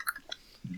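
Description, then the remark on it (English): Two light, ringing clinks of a spoon against a cereal bowl as someone eats cereal, followed by a soft, muffled crunch like chewing, all fairly quiet with no talking. “Yeah, so uh, I'm I'm really glad to hear the sound of uh, clinking silverware in a bowl in the background throughout our our heavy conversation.”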